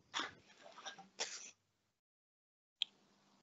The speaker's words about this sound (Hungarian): Egészségedre.